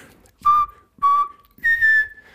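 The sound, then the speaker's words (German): Someone whistles an imitation of a radio news jingle: two brief notes on the same pitch, then a higher, longer held note that slides slightly down. No one speaks. “Wenn da an die Nachrichten kommen, dann kommt so eine richtig billige Melodie, irgendwie so ein Pfeifen.”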